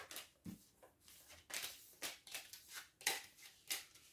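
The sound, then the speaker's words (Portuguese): Tarot cards being shuffled and handled during a tarot reading, a quick series of crisp papery riffles and snaps repeating every half second or so, with no voices. “E temos aqui Rei de Pentáculos na base do baralho.”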